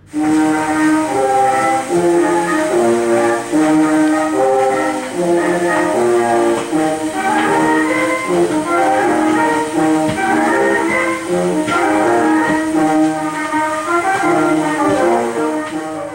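An early instrumental samba band recording, recording number 121.313: brass and reeds play a busy, steady melody with a bouncing rhythm over a constant background hiss, with no voices at any point.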